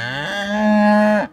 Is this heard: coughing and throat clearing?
no